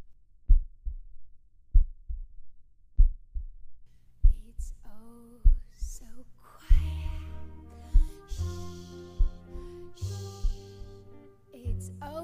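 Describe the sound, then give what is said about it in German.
A slow, steady human heartbeat of deep, paired thumps plays alone at first, then continues beneath music that swells in and grows fuller. “Unseren eigenen Herzschlag?”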